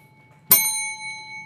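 A single bright bell strike rings out sharply, then leaves a clear metallic tone sustaining and slowly fading over a faint low background hum.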